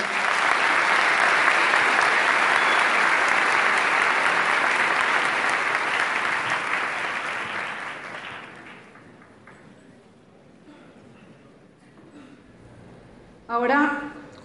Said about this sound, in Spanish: Un aplauso para ellos.